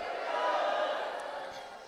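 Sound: audience shouting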